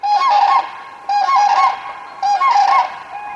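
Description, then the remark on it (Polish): Common cranes, migrating birds newly arrived in Poland, give three loud, rolling trumpet-like calls (klangor) in quick succession, each burst lasting about a second, clear with no talking. “przyleciały do nas żurawie, które głośno krzyczą. Ten śpiew jest zwany klangorem i one zwiastują, to są takie pierwsze oznaki wiosny.”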